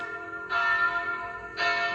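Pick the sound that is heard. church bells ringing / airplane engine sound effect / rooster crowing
church bells ringing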